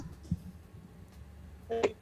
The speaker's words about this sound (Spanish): Claro, pues estás picando el teléfono mientras charla con nosotros.